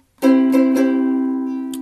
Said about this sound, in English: you want to play C on the first string,